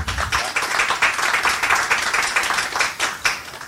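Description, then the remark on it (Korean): An audience claps steadily to welcome a professor onto a talk event, a dense, continuous patter of many hands that holds at an even loudness for several seconds without any talking over it. “여러분 박수 부탁드립니다.”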